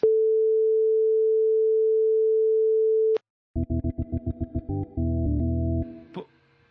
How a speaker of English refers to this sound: Well, it's just a long beep.